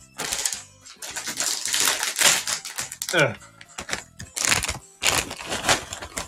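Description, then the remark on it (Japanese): Loud crinkling and tearing of a plastic caramel popcorn bag being opened, coming in several bursts of rustling with brief pauses between them, heard on its own with no talking. “ちょ、キャラメルポップコーン開けますね。ごめんなさい、うるさいかも。”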